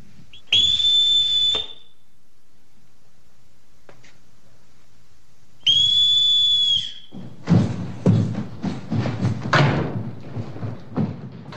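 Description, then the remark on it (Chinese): Two long, shrill whistle blasts from a colonel's whistle, each held steadily for about a second with a pause between, followed by a busy flurry of thumping footsteps and knocks as children quickly run out of their rooms. “随着上校的哨子声，孩子们快速的从各自的房间跑了出来，站成一排，然后合着哨子的节奏，正步走下楼来。”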